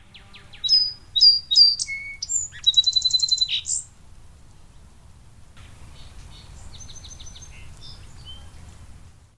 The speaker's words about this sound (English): Like, just go in your backyard or your park, I'm sure you have song sparrows, and listen. Does the neighboring bird respond with the same song, indicating he's willing to fight?